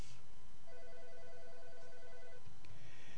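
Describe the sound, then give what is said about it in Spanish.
A telephone rings with an incoming call, an electronic tone, a steady pulsing burst lasting under two seconds, heard alone over a low background rumble. “Tenemos una reacción telefónica.”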